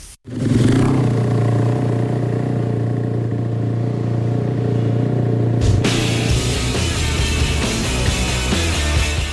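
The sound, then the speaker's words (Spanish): Motorcycle engines roar loudly and steadily, a droning mechanical note that holds for several seconds before shifting into a rougher, busier revving toward the end. No one speaks. “las motos.”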